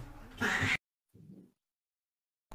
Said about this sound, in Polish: koty się bawią.